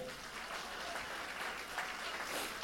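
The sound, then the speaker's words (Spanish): A church audience claps steadily and loudly, a dense wash of many hands with no breaks, sustained at an even level for a few seconds without any voices. “Dale un aplauso, aleluya.”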